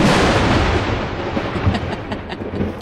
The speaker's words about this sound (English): But it was right around 2.15, and uh, this wasn't the actual b- thunder blast, but this is pretty much exactly what it sounded like.